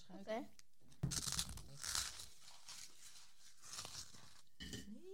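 Close, crackly crunching of a dry rusk being eaten, in irregular bursts for several seconds, with short chirpy vocal sounds just before and after.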